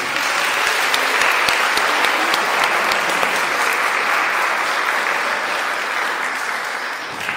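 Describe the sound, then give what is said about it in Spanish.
An audience of children claps steadily and loudly for several seconds, a dense, even wash of applause that holds its strength before easing slightly toward the end. “Vamos a darle un aplauso a Monsi.”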